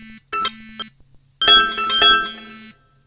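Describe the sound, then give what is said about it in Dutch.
A bright electronic chime from a phone confirming that a text message was sent plays alone: a few quick plinking notes, then a longer ringing two-tone jingle that sustains briefly before cutting off. Clear, with no voices. “De pingel was van de telefoon zelf om aan te geven dat hij het verzonden had.”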